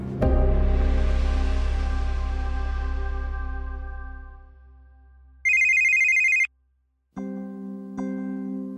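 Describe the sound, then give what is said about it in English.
A deep, resonant tone swells and fades, then a telephone rings loudly with a shrill electronic trill, followed after a brief silence by lower buzzing rings, with no talking. “No one likes the sound of a ringing phone in the middle of the night.”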